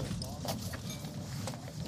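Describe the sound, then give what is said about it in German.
A beer bottle is popped open, giving a couple of sharp clicks over a steady low rumble of background noise. “Hey Digga, willst du ein Bier?”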